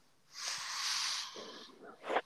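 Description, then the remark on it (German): A cat gives a single breathy hiss lasting about a second, moderately loud, followed by a softer snuffling breath; no one speaks. “Die Katze hat man gehört.”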